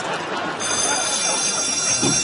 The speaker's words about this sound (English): And there's the bell.